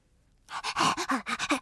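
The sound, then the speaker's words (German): Quick, rhythmic dog panting starts after a brief silence, about six or seven breathy huffs in steady succession with no talking over them. “Ich bin neu in der Gegend, hechelte er, und ich kenne noch niemanden.”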